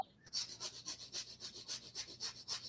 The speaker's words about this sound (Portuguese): Ele está respirando rapidamente, como se fosse um cachorrinho, só pelo nariz, rápido, pegando ar e soltando, pegando ar e soltando. E aí você fortalece o seu abdômen na hora, intensamente.